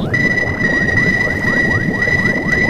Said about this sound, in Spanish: Y ese sonido es el que nos indica que estamos encontrando la vida bajo el hielo.